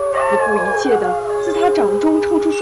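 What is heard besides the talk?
wolves howling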